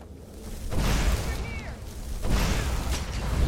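A video game oil well at Red Eagle's Ascent ignites with two loud, roaring bursts of flame, a deep rumbling whoosh sustained between them, and faint whistling tones sliding through the roar.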